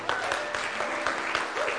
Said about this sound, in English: So before we do that, I want you to give a big old hand clap for yourself for having a heart for the house. Come on, celebrate.